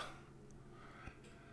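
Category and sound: household object, clock ticking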